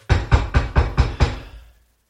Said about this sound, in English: I'm just going to knock on the door because uh, it is my home. I have a key, but I am also polite.